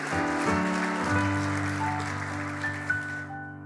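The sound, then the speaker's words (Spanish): An audience applauds for Jesus, a dense, steady patter of many hands clapping over sustained keyboard chords. The clapping cuts off near the end, leaving the held notes ringing. “¿Cuántos dan un aplauso a Jesús?”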